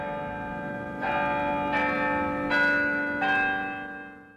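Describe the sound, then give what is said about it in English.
The large historic bells of Albany City Hall ring in a slow, stately sequence, four distinct strikes about a second apart, each leaving a rich, sustained resonance that layers over the last before fading; no voices. “The historic bells of Albany City Hall return us to Albany Street, a public affairs presentation of Albany Broadcasting.”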